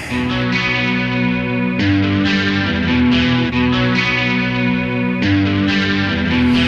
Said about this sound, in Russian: самая злая новогодняя песня от группировки … от …